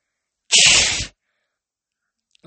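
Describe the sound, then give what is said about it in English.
A single loud, sharp sneeze-like blast voiced by a person imitating a girl blowing her nose into a Kleenex, bursting out for about half a second with a bright hissy noise, then silence before a faint voice begins. “Do you always kill people when they blow their nose?”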